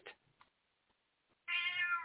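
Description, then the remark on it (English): A male cat named Jobu lets out a loud, drawn-out meow, starting after a moment of near silence and a couple of faint small noises, and still sounding at the end. “Yep, that's my cat Jobu.”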